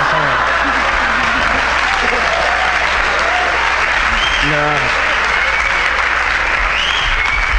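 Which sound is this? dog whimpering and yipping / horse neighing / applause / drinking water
applause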